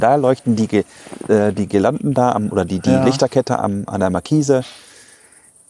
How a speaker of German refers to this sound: Herrlich. Wir hören die Grillen zirpen. Die Grillen zirpen. Toll.